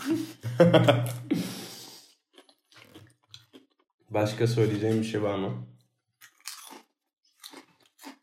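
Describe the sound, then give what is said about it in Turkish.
Crunchy chewing of dried apple, a series of crisp crunches and bites heard between bursts of conversational speech, with quieter chewing clicks continuing near the end. “Biraz yemek yiyorum. Zaten çatır çutur duyuyorlar merak etme.”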